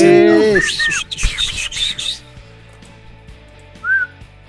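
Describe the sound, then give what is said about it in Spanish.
A person whistles a few short, wavering notes, then breaks off into rustling and breathy noise before one last brief whistled chirp near the end. “No, pues es que yo no sé chiflar, entonces”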